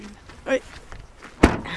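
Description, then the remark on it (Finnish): A car tailgate slams shut with a single loud, heavy thunk near the end, after a few quieter rustles and faint movement sounds. “Täräytänkö takaluukua kiinni?”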